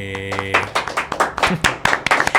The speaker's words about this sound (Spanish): Se amerita el aplauso, se, amerita, el aplauso, claro.